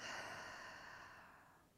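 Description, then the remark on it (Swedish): A long, slow breath pushed out through the mouth after a breath in through the nose, a soft airy hiss that starts fuller and gradually fades over nearly two seconds, quiet with no talking. “Och släppa ut genom munnen”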